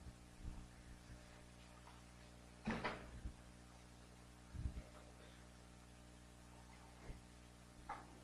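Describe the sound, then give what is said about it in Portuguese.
A lectern-style pulpit gets shifted and an object is set down on a chair: a few scattered wooden bumps and thuds, two heavier ones, over a steady low room hum with no talking. “Então, então faz o seguinte, vamos tirar isso aqui, você tira o púlpito, eu coloco na cadeira aqui.”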